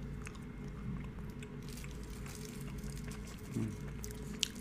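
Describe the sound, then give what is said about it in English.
Quiet, wet chewing and mouth sounds as someone eats a piece of spicy chocolate, with scattered soft clicks and squishes over a steady low hum, one brief sharper click near the end and no talking. “I've tried not to chew it. It just dissolved on my tongue and instantly turned everything on oh, fire.”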